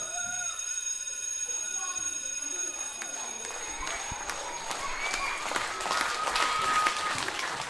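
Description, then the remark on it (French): An audience of spectators in a theatre hall applauds after a show, the clapping thin at first and then swelling into a dense, sustained ovation, with faint crowd murmur and a steady electrical hum underneath. “À la suite des applaudissements, je vois plein de visages enthousiastes en sortant de la salle.”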